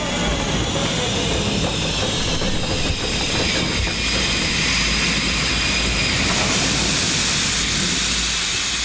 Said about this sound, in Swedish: Det kan inte vara sant! Tåget stannade igen!